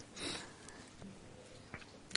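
A wet, congested sniff through a runny nose in the morning, followed by a couple of fainter snuffles and a short sharp intake near the end, fairly quiet, with no talking.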